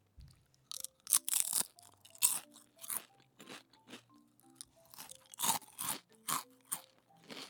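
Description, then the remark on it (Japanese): Crisp crunching of a thin rice-paper cracker with Korean seaweed, sharp brittle bites breaking in an irregular rhythm with softer chewing between, no talking. “これはうまいおせんおせんべいうん何に似てるかなでも薄めのせんべいですね完全にやっぱ韓国海苔めっちゃ合うな”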